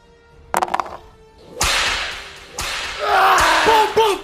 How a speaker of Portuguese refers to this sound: você começa a tomar várias chicotadas.